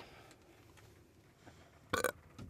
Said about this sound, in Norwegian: Dette det er første gang jeg raper på lufta. Men det var en skikkelig lousy rap. det, var liksom ikke bra nok.